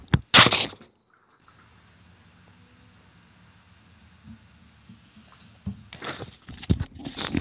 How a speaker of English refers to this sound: Actually, can you hear that beeping now? Should I turn it off? Or okay, let me turn, let me just turn it off really quickly.